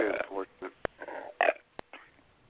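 A loud burp breaks out in several croaky, gurgling bursts over about two seconds, punctuated by a couple of sharp clicks, with nothing else in the background. It comes after drinking a large can of beer.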